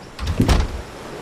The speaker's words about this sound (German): Als das Schiff im Hafen der kleinen Insel ankommt, erscheint es, als ob unsichtbare Hände ein Holzbrett zu dem Steg herunterlassen, auf dem du stehst. Es berührt den Steg mit einem sanften Knall.